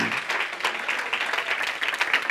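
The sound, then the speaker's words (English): Sustained applause from a crowd giving a hand clap of praise to God. Dense overlapping hand claps form a steady, bright wash of sound with no pauses throughout. “Can we just really, with a sincere heart, give God a hand clap of praise for the engrafted oh. word of ah. God that's able to save our wretched soul?”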